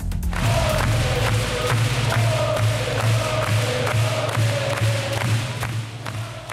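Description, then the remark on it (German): A sold-out sports hall in Winterthur, Switzerland, packed with over 2,000 spectators, roars with continuous crowd noise at a Swiss national handball team match. Steady rhythmic thumps like drumming or clapping punctuate it, all loud, with a low droning tone underneath. “Die Halle war mit über 2000 Zuschauern bis auf den letzten Platz besetzt.”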